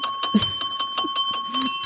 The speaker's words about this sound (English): Ring the bell.